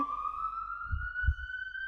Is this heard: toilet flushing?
no